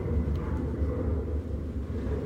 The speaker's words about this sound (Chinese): 但现在飞过来一架好大一架飞机，刚刚远远的还没有过来，我以为打雷了，因为天气有点蒙啊。